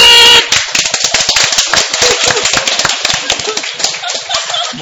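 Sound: hand clapping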